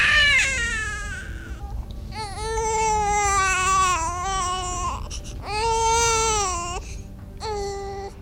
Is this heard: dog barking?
no